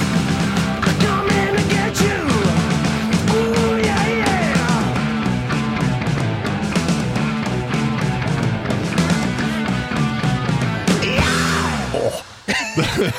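A loud, dense heavy metal track with driving guitars and drums plays throughout, rising near the end into a piercing high-pitched vocal scream before cutting off abruptly.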